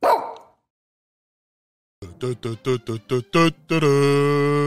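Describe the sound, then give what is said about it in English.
A dog named Eugene lets out a quick run of about six high, sharp yips, then breaks into a longer drawn-out bark or whine, after a brief thump and a pause of silence. “Good dog.”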